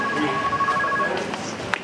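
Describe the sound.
A telephone rings with a steady electronic two-tone trill for about a second, set against busy ambient noise and murmuring voices, followed by a few soft clicks.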